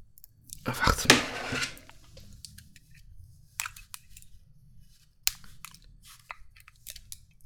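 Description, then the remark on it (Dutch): Scissors cut into crinkly plastic packaging on a small bottle: a loud rustling crunch near the start, then scattered, quieter snips and crackles spread over the remaining seconds. “Mijn schaar werkt ook niet.”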